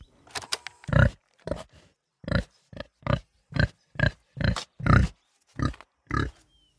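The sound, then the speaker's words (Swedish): A pig grunts repeatedly, about a dozen short, rough snorting grunts in a loose uneven rhythm, fairly loud with brief pauses between them and no talking. “Det du hörde var... En gris!”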